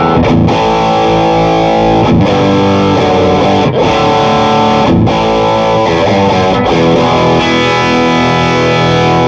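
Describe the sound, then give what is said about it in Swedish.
Heavily distorted electric guitar chords ring out loud with the gain turned up, struck in a series with brief breaks between them. The sound is thick and saturated, with a sustained fuzzy drone and noise, and no voices. “mera eh, kring den alldeles ska prova på att gaina på den lite grann till då.”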